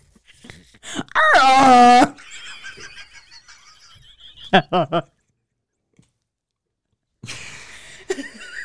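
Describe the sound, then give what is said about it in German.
A person voices an imitation of a rutting stag's bellow: one loud, strained, drawn-out roar lasting about a second, followed by quieter breathy noises and a few short vocal bursts. “Imitiere einen brunstigen Hirsch.”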